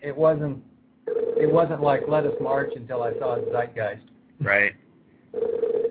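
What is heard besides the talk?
telephone ringing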